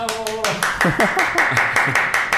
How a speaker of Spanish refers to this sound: ¿Tenemos aplausos hoy día, señor DJ? ¿Cuándo hemos tenido aplausos? Nunca, pero por eso pregunto. Siempre tengo la esperanza de que el próximo programa tenemos aplausos para recibir a los invitados. Vamos a improvisar algo.